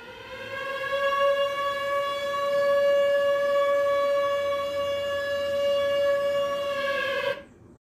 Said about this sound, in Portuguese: O alarme tinha soado, dando a todos o aviso que precisávamos.